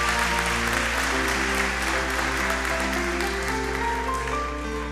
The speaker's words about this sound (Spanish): Dale un aplauso al Señor por eso, iglesia.